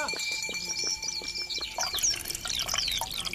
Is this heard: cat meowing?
no